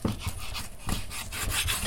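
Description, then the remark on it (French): A knife cuts through chicken with repeated rasping, scraping strokes against a board, coming in an uneven rhythm at moderate loudness, with no one talking. “J'ai commencé à couper le poulet avant de couper les oignons, ce qui est très con puisque ça me fait perdre du temps.”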